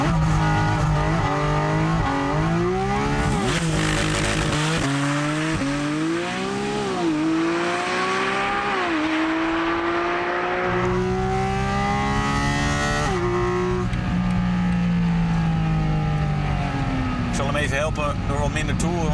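A Porsche, heard from inside the car, launching with launch control and accelerating hard to 100 in about 3.4 seconds, its loud engine roar climbing steadily in pitch through several gear changes, each shift dropping the tone before it rises again.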